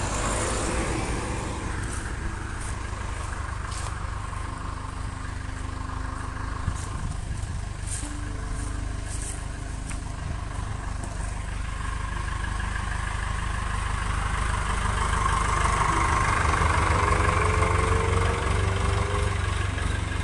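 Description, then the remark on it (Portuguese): A car's engine rumbles steadily throughout, with the low drone growing louder and fuller toward the end as the vehicle passes. No voices are heard. “passar é tipo um carro ali, ali, ali por assim dizer.”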